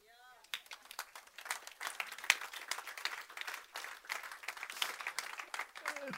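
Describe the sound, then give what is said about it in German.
A crowd bursts into steady applause, a dense, crackling wash of many hands clapping that holds at an even loudness for several seconds. A brief voice is heard just before and at the very end. “Ich denke, das hat einen Applaus verdient.”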